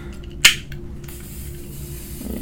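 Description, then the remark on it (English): A rechargeable electric plasma lighter gives one sharp crackling zap, then a faint steady hiss continues over a low background hum. Nobody speaks. “and those are really really cool lighters because they're like electric and like yeah, basically plasma um, lighter, baby.”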